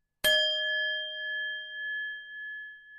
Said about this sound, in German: Klangschale